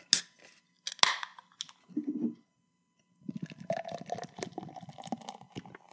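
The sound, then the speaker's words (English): A couple of sharp clicks and a brief low gurgle, then a 0.0 beer pours steadily into a glass with a fizzy, bubbling rush that carries on until the end, forming a creamy head. “Pours with a nice creamy head, too.”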